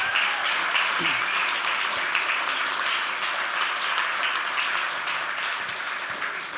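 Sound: audience clapping hands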